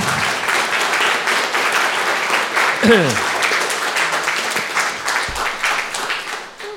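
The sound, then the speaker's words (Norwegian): An audience applauds steadily for several seconds to welcome a guest at an evening event in the series 'Hva er da et menneske?': a dense, even patter of many hands clapping that fades slightly at the end, with a brief voice-like tone cutting through midway. “Du må gjerne klappe allerede litt nå, altså.”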